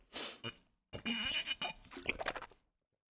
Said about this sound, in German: Ich trinke mal einen Schluck Wasser. Mal ein kleines ASMR-Erlebnis für die hm, Zuhörer.